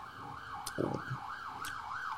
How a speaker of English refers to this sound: it's an ambulance coming to get you.